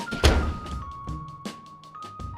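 A door is slammed shut with one heavy, booming thud, followed by a few lighter knocks and rattles fading under a faint steady hum.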